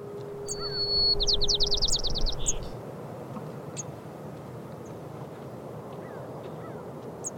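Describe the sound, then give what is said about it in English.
Birds singing outdoors: a quick buzzy trill early on, then scattered faint chirps and tweets over a steady low background hiss and rumble, with no voices. “maybe I can kind of pull off this high pressured work ethic, but modify it enough to stop and like smell the roses or listen to the birds.”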